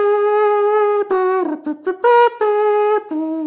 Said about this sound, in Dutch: En dat deuntje van ons met die trompet die ik ooit ergens gevonden heb.